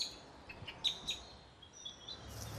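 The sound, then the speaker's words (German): Several short, sharp Eurasian blackbird alarm calls ring out in quick succession, followed by a few thinner high tones, fairly faint against a quiet outdoor background with no voices. “Rufe der Amsel klingen so.”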